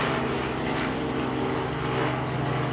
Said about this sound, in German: Jetzt kommt gerade der Hubschrauber vorbei.